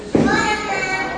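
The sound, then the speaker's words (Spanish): A single dull thump lands near the start as children come into the house, followed by a sustained voice continuing in the background. “perdón por el ruido, estamos aquí en la casa y están entrando mis hijos.”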